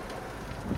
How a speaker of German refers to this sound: Es regnete.